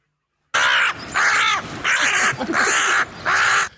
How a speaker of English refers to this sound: We're talking about how sometimes we have uh, uh, we have the soundboard set up for sometimes you get a bird fight.